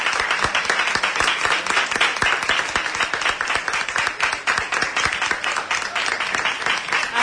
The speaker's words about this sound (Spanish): aplauso que agradece el trabajo, la labor de, la hermandad, porque se ha cumplido con lo que tenían pensado, por lo menos, aunque sea una procesión de estrés, pero lo han conseguido, cumpliendo todas las medidas de seguridad.